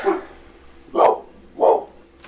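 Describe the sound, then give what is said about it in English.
A dog named Letty barks three times in sharp, spaced bursts, loud, with short pauses between each bark and a faint tick at the end, reacting to a knock on a table. “Our dog just lost it because she knocked on the table.”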